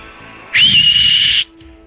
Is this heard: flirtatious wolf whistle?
yes